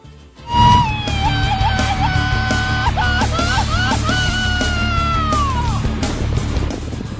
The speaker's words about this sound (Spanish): Si alguien del interior del estado de Michoacán, de Querétaro, Guanajuato, Estado de México, Jalisco, quiere venir a ver cómo se da el grito por acá, al Rincón Suá. ¿Cuáles son los auténticos gritos mexicanos? A ver.